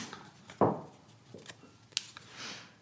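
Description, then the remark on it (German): Quiet paper rustling: a few short crinkly bursts and scrapes as paper slips are stirred in a lottery drum and one is drawn out, with no voices. “So, jetzt schreit aber die Lostrommel.”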